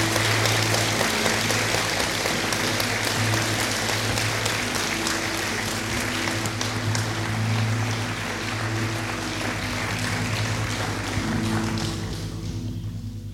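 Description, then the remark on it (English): A church audience applauds steadily for over ten seconds to welcome a speaker to share a message, a dense wash of many hands clapping that fades slightly at the end, with a low steady hum or music underneath. “can we just give a huge applause as we welcome Kerrell to share this message?”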